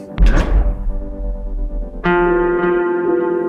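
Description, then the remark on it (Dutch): The door of a small airport in Venice, Italy, slams shut with a loud, heavy bang that rings on into a low, droning hum; a second sharp knock about two seconds later sets off a steady, buzzing tone. “En de deur valt met een harde klap achter ons toe.”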